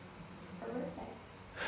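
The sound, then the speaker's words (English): A faint, brief snore with a rough, breathy snort in the middle and a short burst of breath at the end, over a low background hum. “will you stop snoring?”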